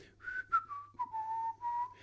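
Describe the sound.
A person playing a guard whistles a short tune while walking along a corridor, several clear notes gliding gently downward in pitch, moderately loud, with no talking.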